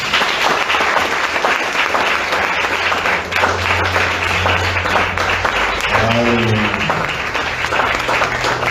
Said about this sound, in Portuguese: Dê uma salva de palmas ao Senhor.